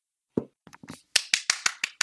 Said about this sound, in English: Clap, slow clap for me. Oh, slow.